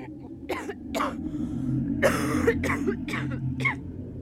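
A series of about six harsh, raspy coughs, some short and one longer and heavier in the middle, coming in uneven bursts over a steady low background hum.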